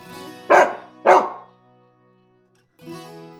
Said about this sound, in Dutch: Maar als ik vervolgens met mijn hond in het restaurant zit en hij blijft maar blaffen, ja, dan werkt het allemaal niet.